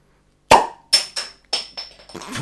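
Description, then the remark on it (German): A sharp, loud pop as a beer bottle cap is levered off with a lighter in an apartment, followed by four or five bright metallic clatters and a faint ring as the cap shoots across the apartment. No one speaks. “Okay, er hat das Ding hier gerade einmal quer durch meine Wohnung geballert.”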